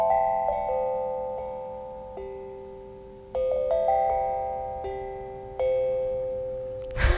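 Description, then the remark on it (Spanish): Bright metallic tones ring out one after another from an Omnidrum, a metal percussion instrument that cannot be tuned, each note sustaining and overlapping into a shimmering, bell-like melody, with no voices. “el Omnidrum, como no se puede afinar, eh, depende de que la fabricación sea impecable.”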